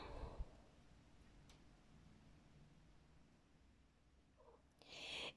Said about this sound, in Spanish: Este, y bueno, déjenle abro a mi gatito.